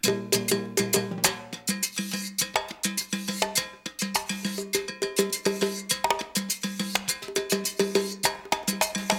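Lively orchestral salsa-style music played on Radio UNAM, with a steady cowbell pattern clacking over busy drums and percussion, sustained tonal parts underneath, loud and driving throughout with no voices.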